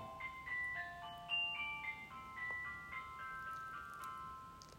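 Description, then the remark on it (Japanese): An electronic 'bath ready' chime melody from a bath water heater, signalling that the bath has finished heating, plays a short sequence of clear, stepped beeping notes, steady and moderately loud over a faint background hiss, with no talking. “風呂が沸きましたということでね”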